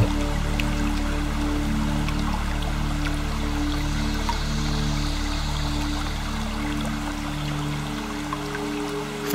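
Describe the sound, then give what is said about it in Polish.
A small stream trickles steadily from one rock ledge down to the next, a constant wash of water with faint scattered drips, beneath a low sustained hum. No one speaks. “niech ten mały strumień spływa z jednego progu skalnego na drugi.”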